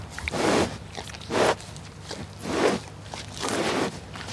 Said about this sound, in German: Im Atem der Kuh ist auch klimaschädliches Methan enthalten. Es entsteht im Pansen, dem größten der vier Rindermägen, und entweicht zum größten Teil wieder über Mund und Nase.